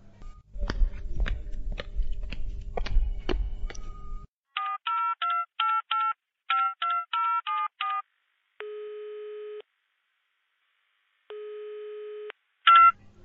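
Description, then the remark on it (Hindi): Rapid tapping and a quick run of mobile phone keypad beeps as a call is dialed, then two long, steady ringback tones with a pause between them, clear with no one talking. “चकभावनी phone केनाई बड़ जरूरी है हमरा लंग है मोबाइल हमरे में से कलू हमरा में बैलेंसो है”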